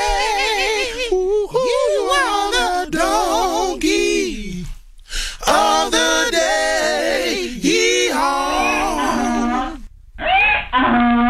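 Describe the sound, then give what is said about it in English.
A vocal group, several voices, sing a short, bright jingle in close harmony with no instruments, their sustained notes wavering with vibrato. The melodic phrases are loud, with brief pauses between them. “Please give Jevin Allen and Jarek Allen the sweet sounds of the ….”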